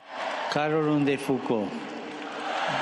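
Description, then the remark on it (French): A large crowd of faithful at a canonisation Mass in Rome, presided over by Pope Francis under a summer sun, cheers and acclaims as the names of the new saints are announced: a steady roar of many voices with a few loud, sustained shouts rising above it in the first half before settling back into the murmuring din. “Il énonce les noms des six saints et quatre saintes, déclenchant ainsi les acclamations des fidèles.”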